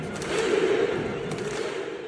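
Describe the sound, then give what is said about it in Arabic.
A large crowd of Moroccan ultras football fans at the World Cup in Qatar cheers and chants together in a dense, steady roar that holds its loudness throughout, with a massed vocal tone rising from the stands. “هذا صوت تشجيع التراس جمهور المغرب في كاس العالم هذه السنه المنتخب اللي وصل المربع الذهبي في مونديال قطر”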